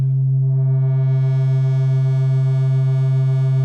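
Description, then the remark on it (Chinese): A single sustained modular synthesizer note holds steady, low and buzzy, while its filter gradually opens so bright, slightly distorted overtones bloom in over the first second and a half. No one speaks. “那我稍微比如说再改一下它的一个 filter，一个滤波器，它可能会就变成这样。”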